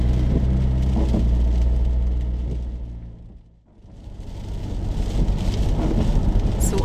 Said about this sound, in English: The rain is lashing down, it's absolutely miserable.